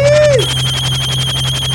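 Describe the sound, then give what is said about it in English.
An electronic phone ringing with a rapid, pulsing warble over a steady low hum. It opens with a short falling tone, then stays loud and continuous with no one talking. “Hold on, you ready? hold on. Let me get the phone.”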